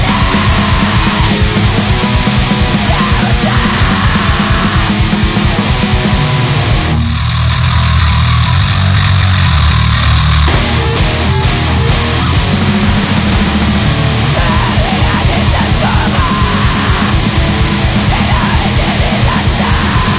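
A loud, dense Brazilian punk rock song with distorted guitars, pounding drums and shouted vocals, playing steadily throughout with a brief thinner break in the middle before the full band crashes back in.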